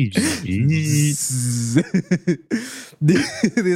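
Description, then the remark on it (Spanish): A voice imitates sounds heard on waking: a shrill, buzzing cricket-like chirp mixed with a harsh grinding whine like a polisher and a construction machine, holding a hissy drone, then breaking into short choppy bursts before one more rasping stretch, fairly loud. “pero más o menos sonaban como, como grillos. Ah. Eh, ah, mezcla, Mezclado con el ruido de una pulidora y una máquina de construcción”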